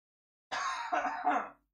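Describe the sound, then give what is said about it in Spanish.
A raspy burst of coughing, three rough hacks in quick succession lasting about a second, with no talking around it. “Ah, hoy, salí, mira, ya estoy tosiendo.”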